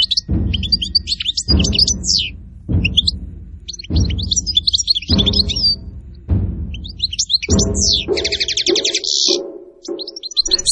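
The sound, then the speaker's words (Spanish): Birds chirp in a park in quick, busy bursts of high tweets throughout, clear, layered over a recurring low rumbling whoosh that swells roughly every second or so. “No podía oír nada más que los pájaros.”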